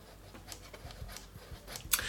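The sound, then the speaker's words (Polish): A telephone's stepped ringer volume switch on its right side panel clicks through its positions, setting the ring quieter or louder, a quick series of about eight crisp, mechanical clicks with one sharper snap near the end, with no talking. “I teraz na ściance bocznej prawej mamy yy, skokowy przełącznik o taki dzwonek ciszej, głośniej.”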